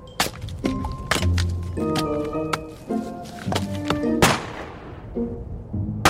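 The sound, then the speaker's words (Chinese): Gunshots: a series of sharp, percussive cracks over a steady musical tone, with one especially loud, ringing shot late on that trails off slowly before a few softer hits follow. “啊，是枪声，一定是猎人在开枪。”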